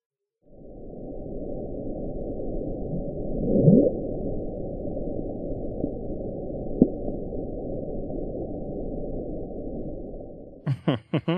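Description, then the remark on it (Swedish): A steady, muffled underwater rumble from the Bloop ocean sound recording rolls on for about ten seconds, with a brief rising sweep early on and a faint tick later, then a voice briefly begins speaking. “och vi kan också lyssna på Bloop.”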